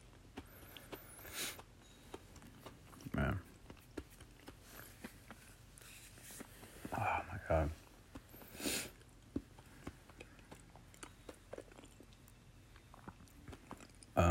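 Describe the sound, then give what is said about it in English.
Crisp crunching as someone chews food, with irregular bursts of biting and munching spread across the stretch and quieter rustling in between, no talking. “Hear me crunching on this?”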